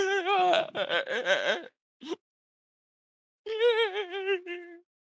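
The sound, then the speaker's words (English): A voice imitates a sound heard from outside that mixes snoring and crying: a snoring inhale and a whimpering exhale, a long warbling moan, a brief catch, then after a pause another drawn-out whimpering wail, fairly loud. “it's almost like uh, crying sounds.”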